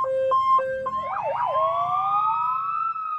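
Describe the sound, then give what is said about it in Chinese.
A police car siren as the police car drives toward the Sun TV station: two quick two-tone hi-lo blasts, then a rapid wavering wail that swoops up and settles into a long, steady rising tone, loud throughout. “又是弗兰熊，猴子警长马上抓起字条，带着小鸡墩墩和兔子警长坐上了警车，朝太阳电视台开去。”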